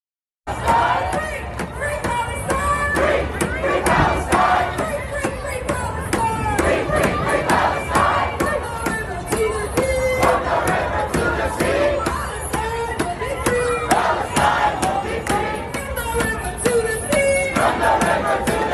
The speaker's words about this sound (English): But you've got this huge crowd of protesters going out and they're they're singing this song. And I want you to listen to this song for a minute, and then I'm gonna tell you what this actually means.